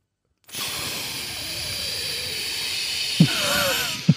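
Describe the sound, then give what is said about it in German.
A voice imitates a long, steady hiss of air escaping from a car tire after the car bumped over a curb, broad and airy, held for several seconds with two short thumps near the end. “Ähm, war, ist einfach Luft aus dem Reifen.”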